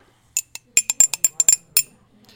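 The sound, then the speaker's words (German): A coffee cup, a '100 Jahre Rundfunk' cup, clinks repeatedly, about ten bright, high-pitched ceramic taps in an uneven rhythm, fairly loud against a quiet background with no talking. “Ich würde sagen, wir fangen erstmal mit der Kaffeetasse an.”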